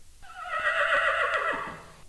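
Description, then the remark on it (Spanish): A horse whinnies loudly for about two seconds, a wavering, high neigh that gradually descends and fades out at the end, with no talking over it; the sound is played by a children's keyboard-learning game when the letter C (caballo) is pressed. “Hola, señor caballo.”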